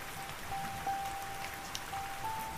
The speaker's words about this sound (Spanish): la habitación será umbrosa, fresca, y estará llena del murmullo de la lluvia. Sí, de la lluvia.